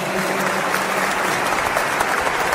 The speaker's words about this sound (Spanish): Pues muchas felicidades, sigan adelante y pues dennos un aplauso